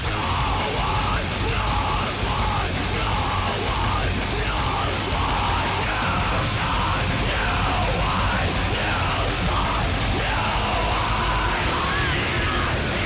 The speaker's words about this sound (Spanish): Habéis escuchado que es música bastante agresiva, de hecho, excepcionalmente agresiva